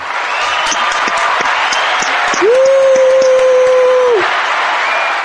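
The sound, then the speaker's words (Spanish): Loud, dense applause from a crowd, given for a child's birthday, fills the whole stretch, with a sustained whistle that rises, holds a steady tone for under two seconds, and then drops away over the clapping. “Así que un aplauso para ti.”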